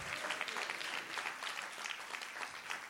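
A church audience breaks into steady applause to the Lord, many hands clapping in a dense, continuous patter that holds at an even level throughout, with no voices standing out.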